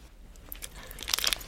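Crisp crunching of chocolate being chewed by someone sitting on bedding, a run of quick bites that grows louder and denser toward the end, with no voices.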